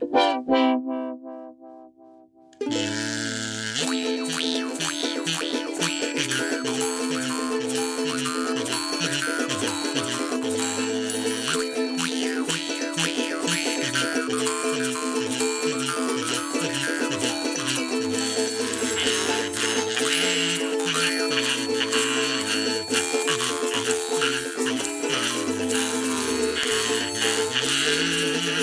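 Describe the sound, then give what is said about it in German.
A classical symphonic melody played on ukulele, kazoo and jaw harp, buzzy and twangy, running steadily and fairly loud for nearly half a minute after a short, quieter opening. “Ein Auszug davon intoniert auf, wie sich's hier gehört, äh, Ukulele, Katsu und Maultrommel.”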